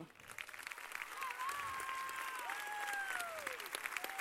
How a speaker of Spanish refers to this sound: Un forte aplauso para ….